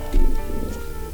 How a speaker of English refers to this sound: Whoa, did you hear that? That was my stomach growling. Holy mackerel.